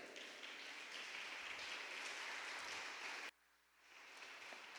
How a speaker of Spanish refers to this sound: Y te damos una ofrenda de palmas. Dásela fuerte a Él.